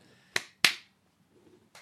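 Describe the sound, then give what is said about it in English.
Two soft, sharp slaps of hands meeting in a quiet high five, followed a beat later by a fainter third smack, with faint low murmuring in between and no clear speech. “I tried to do a more quiet high five so it didn't look like the clap at the beginning.”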